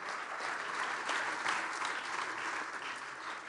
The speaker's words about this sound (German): Lass uns Ihnen einmal einen kräftigen Applaus geben.